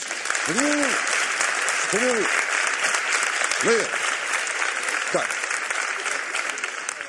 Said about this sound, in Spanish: No entiendo el aplauso, pero bueno. A veces me da por interpretar el aplauso, ¿no?